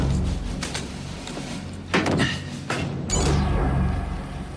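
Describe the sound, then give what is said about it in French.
A door with no name or number on it opens with a few solid clunks and a brief rushing slide, set against a low steady background hum, with no one speaking. “Je crois que c'est cette porte, mais il n'y a pas de nom ni de numéro. Voyons ça.”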